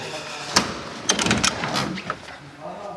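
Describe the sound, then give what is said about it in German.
An old car door swings and latches shut, with a sharp click followed by a cluster of metallic clunks and rattles over about a second and a half. “Die Tür wieder zu. Die schließt noch schön.”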